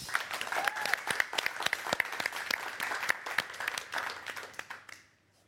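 Warm applause from an audience, dense rapid clapping that swells steadily for several seconds, then fades out quickly at the end. No one speaks over it.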